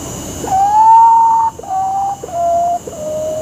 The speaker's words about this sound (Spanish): Pues te voy a dejar con el sonido del potó.